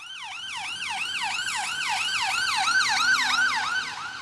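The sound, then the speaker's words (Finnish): Ambulance sirens wail continuously in fast, repeating rising-and-falling sweeps, loud, as ambulances head one after another to the emergency department of the Royal Free Hospital in north London, Britain, with a faint low rumble of traffic underneath and no voices. “Ambulanssi toisensa perään syöksyy pillit ulvoen kohti Pohjois-Lontolaisen Royal Free-sairaalan ensiapuosastoa.”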